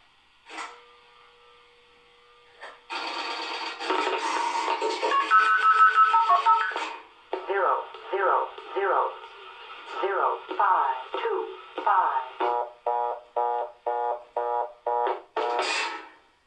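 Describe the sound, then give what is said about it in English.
A number station voice synthesizer machine plays an opening beep and a buzzing electronic tone, then produces a steady string of robotic, clipped syllables in an even rhythm. It is fairly loud and has no natural talking. “And then this other recording here, I think I pulled it from a website, but it's just an example of a synthesis, a voice synthesizer, what they would sound like.”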